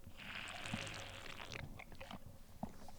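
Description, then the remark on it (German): Sips and swallows of sparkling water from a bottle fitted with an apple flavour pod, a soft carbonated hiss up front followed by a few wet gulps and clicks, with no talking. “Liebe Zuhörer, ich habe die Flasche hier gerade in der Hand und ihr hört mich jetzt auch mal ganz kurz trinken.”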